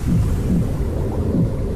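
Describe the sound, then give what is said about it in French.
Muffled, low whooshing heartbeat sounds of the mother's heart as heard in the womb, from an ultrasound recording, a steady rhythmic pulsing under a constant deep rumble, with no voices. “c'est le cœur de, de la maman. Ce sont les bruits. C'est l'échographie. Les bruits in utero, exactement.”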